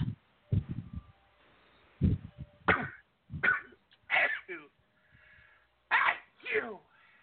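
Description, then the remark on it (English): A series of short, sharp sneezing bursts comes in irregular clusters, loud, with brief quiet gaps and some low breathy sounds in between. “Bless you.”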